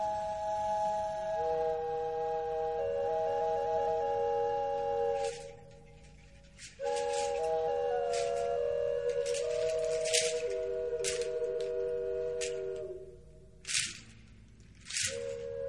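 An instrumental song intro plays: sustained, gliding melodic tones layered over a steady drone, punctuated by sharp percussive hits and a brief drop in the middle, with no singing.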